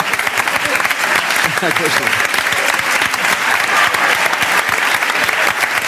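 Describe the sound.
Sustained audience applause for an audience member fills the whole stretch, a dense steady rush of many hands clapping at an even loudness, with some laughter and a few voices mixed in underneath.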